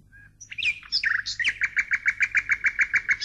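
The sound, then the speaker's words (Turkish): A nightingale sings, opening with a few varied whistles and trills, then settling into a rapid, even run of repeated bright notes, loud and unaccompanied. “Küçük şehzade şadırvandan bakraca su doldururken kubbedeki altın bülbül ötmeye başlamaz mı?”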